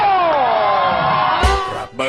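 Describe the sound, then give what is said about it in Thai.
A game show studio audience cheers loudly, a sustained wave of shouting and whooping that swells, bursts once more, then ends with a short final cry. “คุณยังจำเสียงเกมโชว์เหล่านี้ได้หรือไม่”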